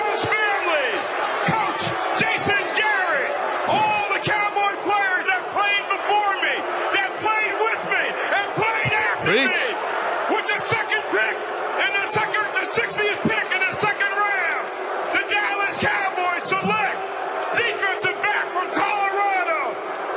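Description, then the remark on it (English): A huge, rowdy stadium crowd of about 70,000 drunk fans in Philadelphia on a Friday night roars and shouts nonstop, a dense wall of yelling and jeering voices with scattered louder cries and bangs, loud and unbroken for the whole stretch. “took on 70,000 drunk Philadelphians.”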